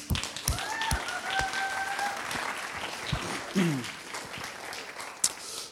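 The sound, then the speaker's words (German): An audience applauds steadily, a dense wash of many hands clapping with a few sharper claps standing out, while faint voices and a brief tonal murmur sit underneath. “Dein zweiter Applaus.”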